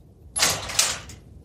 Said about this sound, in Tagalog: Sandali, dito ka lang ha. Bubuksan ko ang pinto.